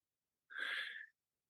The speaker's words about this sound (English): Upon her return, she's greeted by her beloved pet Doberman, but the dog is having difficulty breathing.